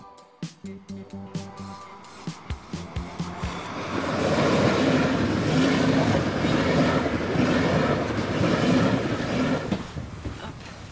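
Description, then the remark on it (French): A Paris public transport train on the move: a run of sharp rhythmic clacks over the rails in the first few seconds, then a steady loud rumbling roar with a faint tonal whine as it gathers speed. “pour une interview dans les transports parisiens”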